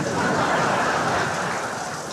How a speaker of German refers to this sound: Hm, wow. Komisch. Kein Mensch hier und alle Duschen laufen.